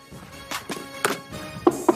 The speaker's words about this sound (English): Knocked on wood.